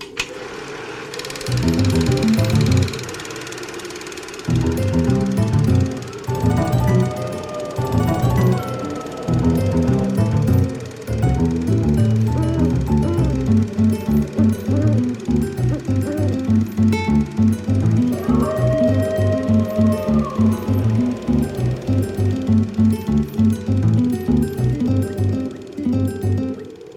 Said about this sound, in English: Folks, you're going to hear a brief musical interlude, and then when we come back, we will discuss the film.